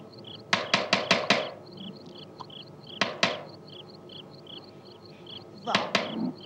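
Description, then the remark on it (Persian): A burst of four or five sharp raps on the door of a house, then one lone knock, and later another short cluster. Fairly loud, with a steady high chirping of crickets in the background. “باد کجا بود دارن در میزنن پاشو برو ببین کیه”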